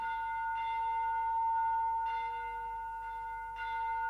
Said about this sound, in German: Wo aber tönet diese Glocken, hat angehoben Ewigkeit.